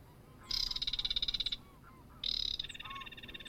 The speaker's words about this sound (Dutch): Maar het is een goede vraag. Want, want het is een bedelende rietgors die klinkt als een graszanger.